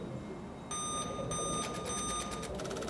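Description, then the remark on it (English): Insistent electronic beeping from Bob's side of a control panel starts after a short quiet moment, then pulses rapidly and keeps going for one too many cycles over a low background hum. “Incessant beeping, carrying on for one too many cycles, and was on Bob's side of the control panel.”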